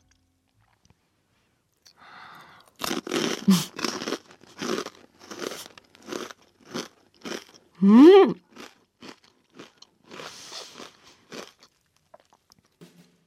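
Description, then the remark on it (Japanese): Loud crunching as a crisp, salty, oily fried snack is bitten and chewed, a quick run of sharp crackly bites repeating for several seconds, with a brief murmur from the eater partway through. “ちょっと口に入れてみますねじゃあいただきます”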